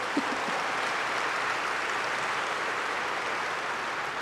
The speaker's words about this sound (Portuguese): Pode dar uma salva de palmas para Jesus.